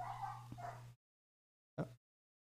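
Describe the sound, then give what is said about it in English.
A neighbor's dog whimpers in a drawn-out, whiny tone over a low steady hum, then after a brief silence lets out one short, sharp bark. “What's something going on with my neighbor's dog?”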